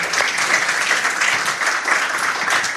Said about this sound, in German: Ganz großen Applaus. Dankeschön. Danke, dass ihr hier wart.